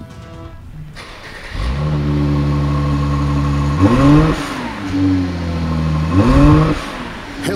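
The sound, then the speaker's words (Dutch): A car engine cranks and catches, settles into a steady rumble, then revs sharply twice with rising and falling pitch, loud. A brief vocal murmur is heard at the start. “maar wel even de motor starten, toch? Ja, ik sling hem aan voor je.”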